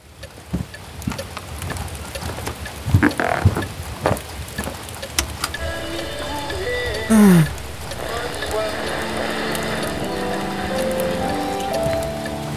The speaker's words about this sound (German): fixierte das flackernde Kaminfeuer, dessen Prasseln vom Trommeln der Regentropfen gegen die Fenster des Ferienhauses begleitet wurde.